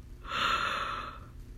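A single drawn-out yawn, close and fairly loud, rising into a breathy open-mouthed exhale that fades over about a second with no talking.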